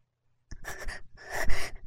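A woman panting, with quick, airy breaths in two short bursts after a moment of silence, loud and breathy with no words spoken.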